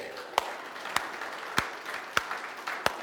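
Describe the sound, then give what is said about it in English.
A church audience applauding the fathers on Father's Day: a steady bed of scattered clapping, with several sharp, louder claps landing at an even beat. Faint crowd murmur sits underneath. “Come on, can we give it up for all our dads today?”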